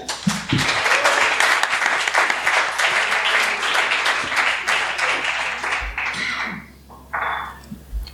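Sustained audience applause, a dense wash of many hands clapping steadily for several seconds, then thinning and fading out with a few scattered claps at the end.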